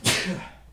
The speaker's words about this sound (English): Bless you.